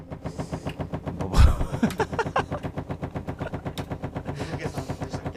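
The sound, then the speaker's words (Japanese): A washing machine at someone's family home running with a rapid, steady mechanical rattle that pulses several times per second, fairly loud, with one heavier thud early on and no voices. “ムクゲさんの洗濯機違うよムクゲさんの実家の洗濯機”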